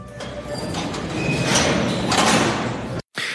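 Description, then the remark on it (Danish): A heavy prison door in Hasakah province, northeast Syria, grinds open in one long, loud metallic scrape with faint squealing tones, cuts off abruptly, then the grinding resumes after a brief gap. “Det her det er lyden af en tung fængselsdør, der bliver åbnet i hasakar provinsen i Nordøst-Syrien.”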